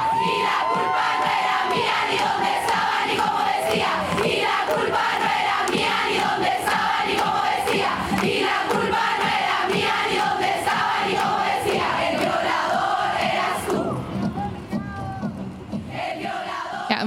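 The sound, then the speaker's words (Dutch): A large crowd chants in unison, loud, a steady rhythmic protest song of many voices, 'The Rapist in Your Path' (Dutch title 'De Verkrachter op je pad'), with lyrics saying it was not my fault, not what I wore or where I was. It continues throughout, thinning near the end. “wat je hier hoort, dat is het eh, protestlied met de titel, uh, nou ja, dat is dan vertaald, is eh, De Verkrachter op je pad.”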